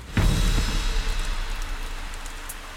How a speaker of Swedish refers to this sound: Till slut kommer en regnskur som avbryter myrangreppet.